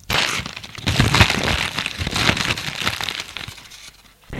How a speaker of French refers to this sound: Il arrache le paquet des mains et l'ouvre.